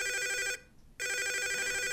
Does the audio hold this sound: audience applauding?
no